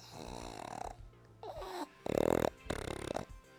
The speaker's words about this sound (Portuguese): isso que você acabou de ouvir não foram peidos, é o meu cachorro, um pug. Vez ou outro ele vai aparecer por aqui.